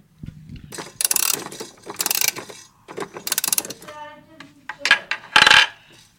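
A key winds a pendulum clock in several bursts of dry metallic ratcheting clicks, each turn a short rasping run, with a brief ringing metallic tone between turns.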